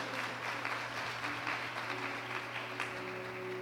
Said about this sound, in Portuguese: Você diz amém. Alguns diz glória a Deus, outros aplaudem ao Senhor. Muito bem.